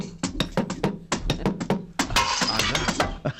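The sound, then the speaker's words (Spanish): A chair leg strikes a suitcase full of marbles, played as a homemade percussion instrument, again and again, giving sharp knocks with rattling clinks, then a denser burst of clattering marbles before the hits thin out. “Que es darle con la, pata de una silla a la maleta con unas canicas”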